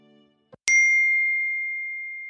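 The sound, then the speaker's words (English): A single bright message notification ding for a direct message reply from Lucas rings out after a soft click, its clear tone sustaining and slowly fading over a couple of seconds. “A message back from Lucas.”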